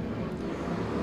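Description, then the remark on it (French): A motorcycle passing by outside roars steadily for about a second, a thick low rumble with a broad rushing noise above it and no voices. “Ah, encore une moto.”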